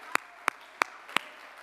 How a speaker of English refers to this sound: would you just clap your hands with me? Hallelujah. Hallelujah.